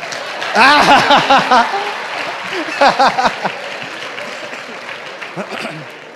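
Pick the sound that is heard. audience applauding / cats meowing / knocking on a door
audience applauding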